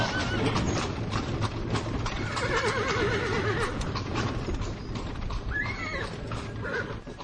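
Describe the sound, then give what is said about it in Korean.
Horse hooves clip-clop in a steady, continuous rhythm of sharp knocks, with a brief whinny and the rumbling sound of wheels in the background, and no talking. “오랜만에 이틀간 듣는 정들겠어 말발굽 소리, 바퀴 소리”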